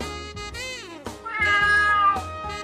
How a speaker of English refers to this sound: I'm recording, and she just she just let the cat in here.